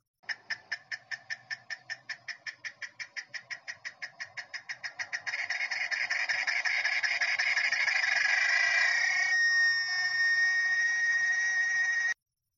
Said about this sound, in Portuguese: Isso mesmo, o som das cigarras.